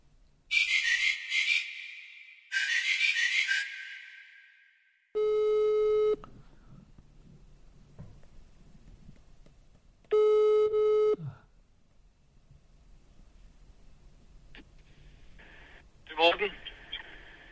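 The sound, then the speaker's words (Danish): A telephone ringback tone sounds through a phone line during a call to Morten Spiegelhauer, repeating in long, loud buzzing bursts with short gaps, then stops as someone picks up with a brief click and faint voice. “Nu ringer du til Morten Spiegelhauer.”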